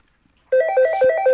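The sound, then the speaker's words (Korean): A phone ringtone suddenly starts after a moment of silence, a bright electronic melody of short repeating tones with steady harmonics, loud and continuous with no voices. “아유 왜라고 전화를 늦게 받아야?”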